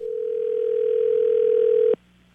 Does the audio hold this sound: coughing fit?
no